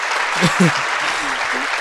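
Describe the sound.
Dense, loud applause from an audience of 5,000 listening to a singer perform, a steady wash of clapping with a few brief voices rising faintly underneath.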